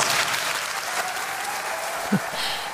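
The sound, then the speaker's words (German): Steady, dense audience applause after a laudation speech fills the whole stretch, a broad crackling wash of many hands clapping at an even level, with a brief low thump near the end. “Okay, das, das ist heftig, aber das, das Publikum applaudiert.”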